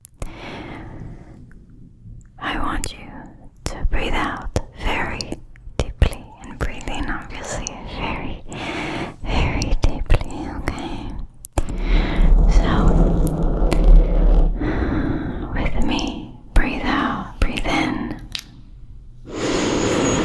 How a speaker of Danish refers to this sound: Et fænomen er ASMR. Det står for Autonomous Sensory Meridian Response. En fin måde at sige en rar kilden eller summen i hovedet og ned ad kroppen, forårsaget af lyd eller billedstimuli. ASMR lyder blandt andet sådan her.